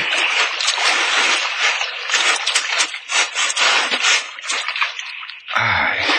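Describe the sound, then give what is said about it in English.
A rowboat is hauled ashore through shallow water, with a steady loud sloshing and scraping rush, ending in a brief low thud and splash. “I'll hold on tight so you can pull the boat ashore after us.”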